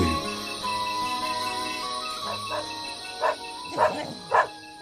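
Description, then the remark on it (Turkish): Several dogs bark at night in short bursts, a few sharp barks spaced out near the end, moderately loud over a steady background hum. “Bu köpeklerde bu gece asabım bozdu yahu.”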